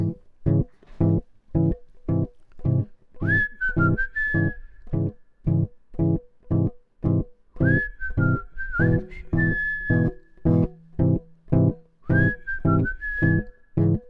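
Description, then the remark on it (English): The first rough bass fragment of a song sketch, written music first with no vocals: short, evenly spaced low notes pulsing in a steady loop, with a whistled melody drifting over it in three brief phrases. No voices. “The first bass fragment, that initial piece of frustration, sounded like this.”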